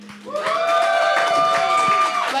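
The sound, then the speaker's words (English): A live crowd at the Pour Brothers Brewery cheers and claps, with a sustained whoop or whistle rising over the noise. The burst swells in quickly and holds steady and loud for about two seconds. “Let's hear it for the brewery”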